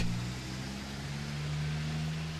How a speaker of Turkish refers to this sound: Gitsin diye bekliyorum. Hadi be arabalar geçin be.